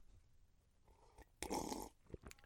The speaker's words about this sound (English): Uh, all right. Uh, hold on, let me just get a quick sip of water here.